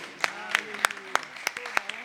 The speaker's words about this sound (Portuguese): pode aplaudir o Senhor porque é bom a gente aplaudiu o Senhor, Ele é digno.